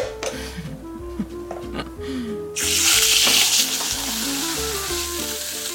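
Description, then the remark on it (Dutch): Cuttlefish drops into a red-hot pan with peanut oil, a neutral oil, and bursts into a loud, steady sizzle that keeps crackling to the end, following a quieter stretch with faint background tones and clatter. It is fried only very briefly. “Dat lijkt uh, gloeiend hete pan. Gewoon arachideolie, een neutrale, neutrale olie. Zeer kort.”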